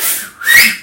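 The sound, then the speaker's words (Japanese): A shrill, breathy finger whistle blown twice in quick succession, the second burst stronger with a piercing high tone that wavers slightly. Fairly loud, with no talking. “1時間半2時間ぐらいで「ヒーヒー」って音が出るようになって”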